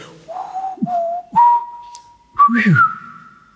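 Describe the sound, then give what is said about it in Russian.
A person whistles a short birdlike phrase imitating a thrush's song: a few sliding notes, then a long steady tone and a brighter rising flourish, clear with no talking. “Вот так вот он стал петь это же колено, но с продолжением а-ля мусорские.”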